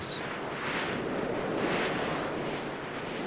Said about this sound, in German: Als sie den Filzvorhang am Eingang zurückschlug, empfing sie ein kalter Windstoß.